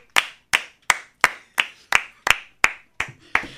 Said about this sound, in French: Nous ne sommes que deux, mais le cœur Ça s'entend. C'est un applaudissement fourni.